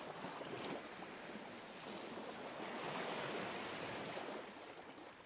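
Steady ocean surf rushes continuously, a soft broad wash of waves with gentle swells in intensity and no distinct breaks, heard alone without any voices.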